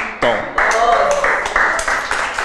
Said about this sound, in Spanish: De un aplauso, muchos no saben, mira, ¿qué aplaude esta gente? ¿Verdad? ¿Sabes de qué aplaude? de que José no se amargó en el proceso